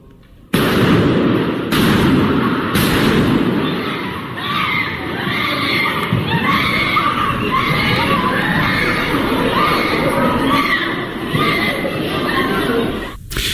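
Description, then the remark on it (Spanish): Three sharp gunshots crack out in a church in the first few seconds, the first two from a shooter and the third from a churchgoer, followed by sustained panicked screaming and shouting from churchgoers seeking cover among the pews and running for refuge, loud, chaotic voices continuing to the end. “En el video se puede escuchar los gritos de los feligreses que buscan protegerse entre las bancas y corren para refugiarse.”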